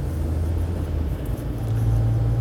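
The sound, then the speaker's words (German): Steady low engine hum and rumble inside a car driving to work in slow, congested traffic, going no faster than about 30, a constant drone with a tone that shifts pitch partway through, like an engine changing revs while creeping along. “Aber jetzt äh, sitze ich im Auto auf dem Weg zur Arbeit und es geht hier nur schleppend vorwärts weil äh, ganz viele Autos die Straße verstopfen und vermutlich fährt irgendwo vor diesen 8 Millionen Autos ein Traktor,”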